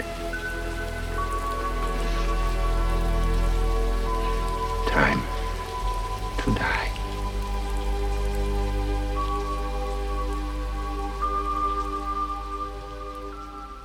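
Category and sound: nature, rain falling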